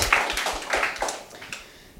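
A short burst of audience applause, many hands clapping in a dense, irregular patter that stays steady at first and then gradually thins out and fades toward the end.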